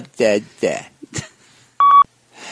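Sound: beep tone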